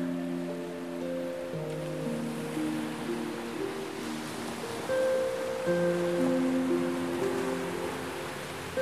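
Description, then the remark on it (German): Ocean waves splash and wash against black rocks framing a beach on Lanzarote in a steady, continuous rush, swelling slightly louder toward the end, with sustained low musical tones humming underneath and no voices. “Die Wellen schlagen sprudelnd dagegen, als würde das Meer fröhlich spielen und das Leben mit jeder Welle zelebrieren.”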